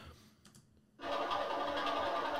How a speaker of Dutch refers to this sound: Elektrische activiteit veranderd in geluid. Maar de reden waarom hij dus liegt en zegt dat een pulsar een pulsar heet omdat het een kloppend geluid is